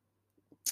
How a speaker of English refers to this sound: Oh my God, I need to sip some tea. Mm.